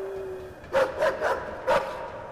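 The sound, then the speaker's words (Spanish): A dog barks four times in a quick, uneven burst, sharp, the barking entering a factory through a doorway and echoing, with a faint steady hum in the background and no talking. “Y los ladridos del perro, a ustedes de un salto te asustan, al menos por el primer ladrido, porque el ladrido, el ruido entra por este vano de la puerta, entra hacia, hacia la fábrica y se escucha un eco.”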